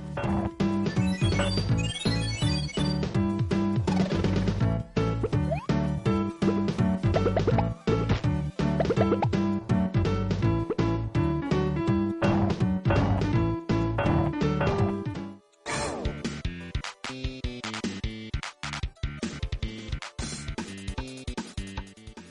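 Retro 16-bit Super Nintendo-era audio from the game Jelly Boy on Nintendo Switch Online plays steadily and loudly: a busy synthesized tune layered with quick bubbly, plinking effects, with a brief dip partway through and no voices.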